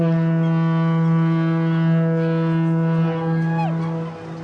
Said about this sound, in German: Die Schiffspfeife gab einen letzten klagenden Ton von sich